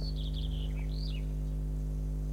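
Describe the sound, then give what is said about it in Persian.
Outdoors, a few brief, high bird chirps and a short rising-falling whistle sound in the first second and a half, over a steady low hum, with no talking. “صدای پرنده ها رو میشنوید اینکه هر روز صدای پرنده میشنویم”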